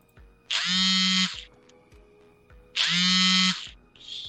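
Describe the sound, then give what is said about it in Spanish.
Oscar Andrade's mobile phone vibrates as he is being called during a live broadcast, giving two loud, rattling buzzes about two seconds apart, with a brief fainter buzz starting at the end. No one speaks. “Ahí lo están llamando. Está solicitado, ¿no?”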